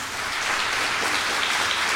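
An audience applauds together, thanking Jesus for the life of a theology graduate approved by the examining council for ordination as pastor, in a steady, dense wash of clapping that holds at an even, fairly loud level throughout, with no voices standing out.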